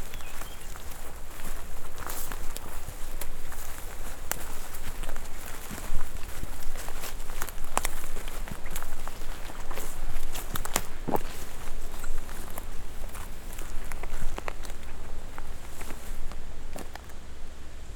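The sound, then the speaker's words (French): Steady footsteps crunch along a gravelly path outdoors as a person walks ahead of the microphone, a regular walking rhythm with constant soft wind and ambient noise behind, no one speaking. “Alors justement, je vais marcher devant toi.”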